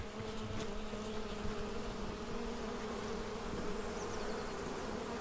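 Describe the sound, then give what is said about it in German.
A steady, dense buzzing of many honeybees from colonies hidden at the edge of a forest hums throughout, a continuous drone with no pauses, fairly loud, with no voices present. “Wir machen uns kauderwelschend gemeinsam auf dem Weg zu seinem fünf Kilometer entfernten, am Waldrand versteckten Bienenvölkern. Man hört sie.”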